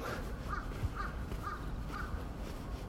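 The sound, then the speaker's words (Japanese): A crow caws four times in a steady, evenly spaced series in a park in Sapporo, over a constant outdoor background rumble with no one speaking. “今僕は公園の中を歩っているので鳥の声とかが聞こえてきているというふうに思います。”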